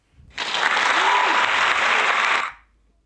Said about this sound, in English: Okay, give it a round of applause.